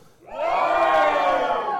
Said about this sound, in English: I'm going to count one, two, three, and I want you to shout as if you were at Jericho that day. One, two, three.